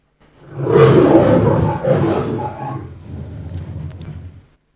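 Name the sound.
lion roaring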